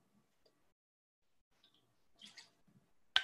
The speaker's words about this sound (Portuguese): Vou tomar um gole d'água aqui.